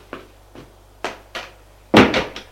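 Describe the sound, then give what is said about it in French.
A woman pushes a door shut at a lawyer's office: a few soft clunks and latch clicks, then a louder thud with quick rattling knocks as it settles, with no voices. “Elle ferme la porte.”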